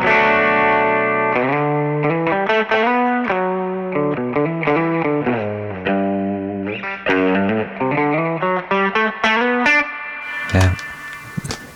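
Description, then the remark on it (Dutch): A Telecaster electric guitar, bought at auction, plays a steady run of bright, distorted notes and chords with a chorus-like shimmer, the phrases moving in a lively rhythm before a sharper strummed burst near the end. “Dit klinkt nog wel als een telen, toch?”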